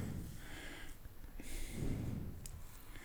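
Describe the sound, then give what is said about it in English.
Heavy, labored breathing with loud rasping inhales and exhales in a steady rhythm, like someone still winded after exertion, over an hour after being picked up. No talking. “I picked you up over an hour ago. Okay. You shouldn't still be breathing like”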